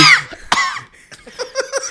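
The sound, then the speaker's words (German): A person imitates a child coughing with open mouth and tongue stuck out: two loud, harsh bursts, followed by a few breathy, voiced sputters that trail off like laughter. “Oder reingehustet. Bestimmt, so, bestimmt. aber mit offenem Mund und rausgestreckter Zunge. So.”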